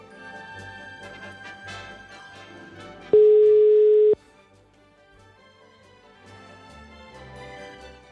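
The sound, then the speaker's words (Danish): A loud, steady mid-pitched telephone busy tone sounds once for about a second, signalling that the called number is busy, cutting sharply over quieter background music that continues before and after. “Det kaldte nummer er optaget.”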